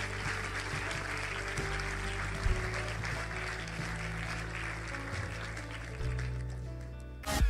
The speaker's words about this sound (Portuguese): Igreja, podemos dar uma grande salva de palmas a todas as pessoas que nesta manhã tomaram uma decisão por Jesus.